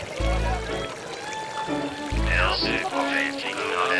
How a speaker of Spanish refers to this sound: Lo que se oye es una de las fuentes del eje ambiental. Es la avenida Jiménez, eh, eh, llamada así por, el nombre del fundador de la ciudad de Bogotá,